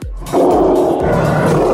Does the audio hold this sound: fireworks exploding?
no